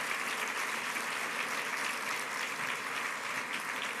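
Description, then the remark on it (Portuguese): An audience claps steadily in praise of Jesus, a dense, continuous wash of many hands applauding at an even loudness throughout, with no voices standing out. “Glória a Jesus, aplauda Jesus.”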